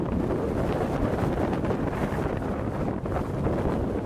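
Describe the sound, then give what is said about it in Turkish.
Storm Pia's winds, exceeding 80 km per hour in England, roar and buffet the microphone in continuous heavy gusts, a loud, dense rumble that never lets up across the whole stretch, with no voices present. “Hızı saatte 80 kilometreyi geçen rüzgarlar nedeniyle çok sayıda binanın çatısı uçtu.”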